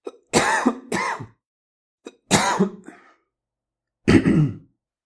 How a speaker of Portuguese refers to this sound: Mas se esse movimento da epiglote falhar por algum motivo e o alimento seguir pela laringe, nós temos o um engasgo e, como reflexo, a tosse, para tentar expelir essas partículas das vias aéreas.